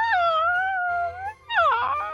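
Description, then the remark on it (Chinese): A small dog, Toto from the Wizard of Oz story, whines at the Tin Woodman in two long, high-pitched, wavering cries, the second one dipping and rising in pitch after a brief pause. No one speaks. “桃乐丝的小狗托托对着铁樵夫一直叫，桃乐丝忍不住好奇地走向前去。”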